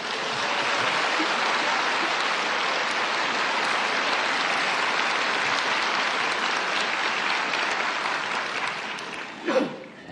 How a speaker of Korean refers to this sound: 박수로 모시겠습니다.